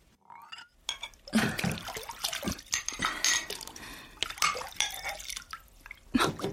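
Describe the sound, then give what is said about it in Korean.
A woman washes her dishes, a single rice bowl, soup bowl and set of spoons, at a sink: water drips and trickles while bowls and spoons clink together in short, irregular bursts, fairly quiet, with no voices. “남자를 골목 입구까지 배웅한 뒤 돌아온 여자는 설거지를 했다.”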